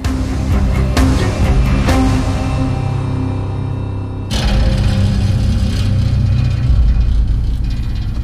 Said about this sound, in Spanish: Roger iba manejando por los caminos solitarios de la terracería cuando su pareja gritó de forma aterradora.